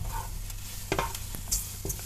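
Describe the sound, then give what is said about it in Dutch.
Stir-frying liver in a wok, using scissors as the utensil: a steady background sizzle broken by sharp metallic scrapes and clanks of the scissors against the pan, several quick strikes at irregular intervals, with no talking. “ik zit echt helemaal zo te wokken.”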